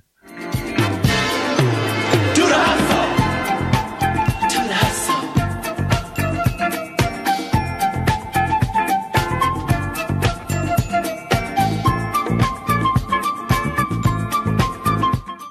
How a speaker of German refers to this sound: Ja, da haben wir es gehört. Mit H am Anfang. …. … von ….